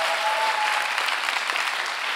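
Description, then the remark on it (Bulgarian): An audience claps steadily, a dense, continuous wash of many hands at an even loudness throughout, with no voices standing out above it. “О, ако ръкопляскаш, ръкопляскай, като че наистина вярваш в това.”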